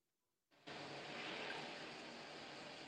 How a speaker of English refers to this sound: Uh, this is some helicopters flying above, I guess.